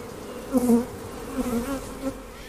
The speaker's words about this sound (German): Wer oben auf dem Hügel von der Stadt kommend links um das Schloss herumgeht, sieht und hört sie gleich. Die Gotha Schlossbienen, die in vier Holzkisten zu Hause sind.